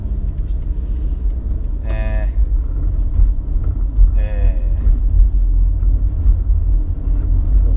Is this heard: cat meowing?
no